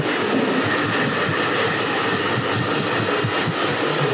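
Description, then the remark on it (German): A hair dryer blows steadily with a loud, continuous rushing whoosh that holds an even level from start to finish, with no voices over it. “Was ah, Föhn!”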